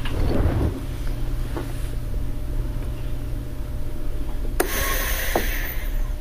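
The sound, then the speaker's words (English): The small motor of a vacuum sealer drones steadily, then a sharp click at about four and a half seconds shifts it into a brighter, hissier whir as it heat-seals a bag holding three chops. No one speaks. “Here it goes. It's going to seal now.”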